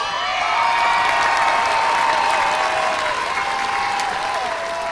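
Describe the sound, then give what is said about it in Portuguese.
Steady, dense applause from a crowd, many hands clapping at once in a loud, continuous wash with faint whistles or whoops rising above it, no speech over the top. “Tava de palmas.”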